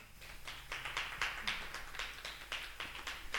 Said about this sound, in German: Ja, da kann das Publikum hier gerne einmal einen Applaus spenden.